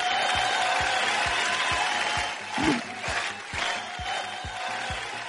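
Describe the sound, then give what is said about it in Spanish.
A crowd applause sound effect, prolonged by the sound operator, plays steadily and fairly loudly throughout, a dense wash of clapping with a regular low thumping beat underneath and a brief swell of voices midway. “Por alguna razón, el emperador de sonido prolonga los los aplausos de la reina de las redes sociales.”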